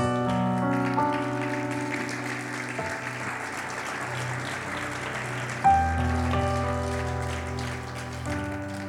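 audience applause

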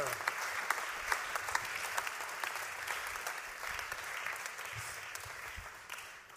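audience applause

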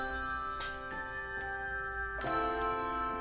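bells ringing

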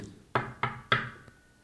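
knocking on a door

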